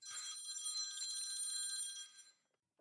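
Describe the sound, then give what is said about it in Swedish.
A phone rings with an incoming call from a real estate agent: one bright, rapidly trilling burst lasting about two seconds, clear, then cuts off into near silence. No one speaks. “Nu ringer det här. Det är mäklaren.”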